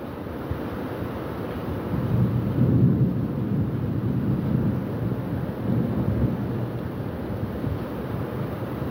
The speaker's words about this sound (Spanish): Llevamos como unos 10 minutos de lluvia fuerte. Vea cómo va el agua.